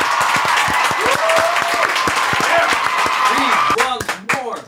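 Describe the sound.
Sustained audience applause, a dense rapid patter of many hands clapping at steady loudness, with a few voices calling out over it before it thins out near the end.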